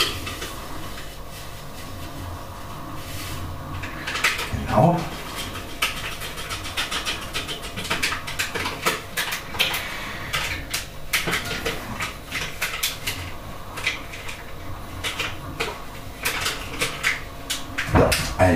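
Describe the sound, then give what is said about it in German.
Contents pour steadily out of a bag for most of the stretch, a dense rattling, crinkly rush, broken by a few louder knocks and rustles of the bag. “ist das Frickelei mit der Tüte hier, aber es funktioniert. So, ich kippe rein.”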